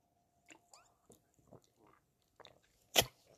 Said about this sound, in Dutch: Even een slokje.